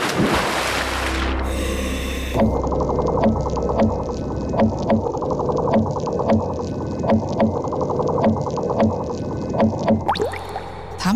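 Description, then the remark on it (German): Underwater clicks of a seahorse: a steady train of sharp knocking pulses, evenly spaced about twice per second, over a low rumbling hum, with a brief burst of noise at the start and end. “dieses Klopfen? Das könnte ein Pottwal gewesen sein, die ihre Navigation unter Wasser auch mit solchen Geräuschen machen.”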